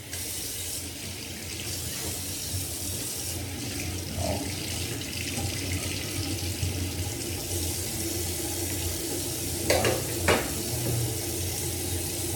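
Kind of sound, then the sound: household object, water boiling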